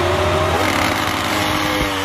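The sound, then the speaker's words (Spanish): A loud Ducati motorcycle engine roars steadily for about two seconds at a race start, a dense, throaty drone with a rising revving edge and no voices over it. “le vamos a hacer un salidón Ducati para Bibix Moto.”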